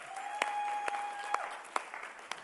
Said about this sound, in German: Und dem Lobpreisteam einen fetten Applaus, komm schon.